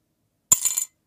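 A euro coin drops into a small cup, landing with a sharp clink followed by a few quick rattling bounces and a bright metallic ring that fades after about a third of a second.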